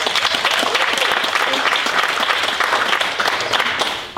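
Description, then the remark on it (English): A church audience applauds its pastors steadily, a dense, loud wash of many hands clapping that stays even for several seconds before easing slightly at the end. “Can we give them a huge round of applause?”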